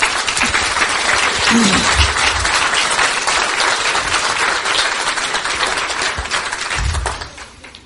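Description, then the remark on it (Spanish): Sustained applause from an audience for the new "diamonds" of a business, a dense, even wash of many hands clapping at steady loudness for about seven seconds before tapering off at the end. “Un aplauso para los nuevos diamantes, por favor.”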